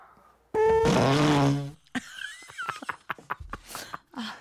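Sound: fart sound effect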